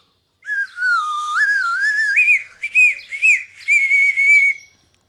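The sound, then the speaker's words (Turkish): A person whistles a continuous, wavering melody with sliding pitch, loud, pausing briefly before a few short rising whistles and another sustained phrase; no talking. “kedime ıslık dili öğrettim de.”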